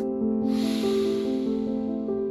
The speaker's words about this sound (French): Prends le temps d'une respiration. Inspire.